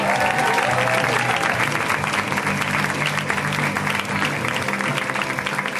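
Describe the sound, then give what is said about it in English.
A comedy show crowd claps steadily and loudly for several seconds as comedian Katie Crown is introduced, a dense wash of applause with scattered cheers mixed in, sustained at an even level throughout. “Let's hear it right now for Katie Crown, guys. Give it up for Katie.”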